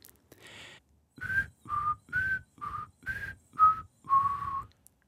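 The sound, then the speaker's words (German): A person whistles a short tune of about seven distinct notes that step up and down in pitch, clear, after a soft breathy lead-in, the last note held a little longer. “Ist nochmal schöner pfeifen.”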